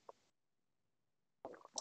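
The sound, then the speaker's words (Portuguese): Quiet slurping and swallowing of a drink of water: one small wet click, a brief silence, then a short cluster of moist sipping and gulping sounds, with no talking. “Pausa para água, quem nunca, né?”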